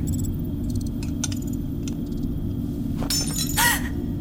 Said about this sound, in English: oh, don't break them! I didn't bring enough for them to get shattered.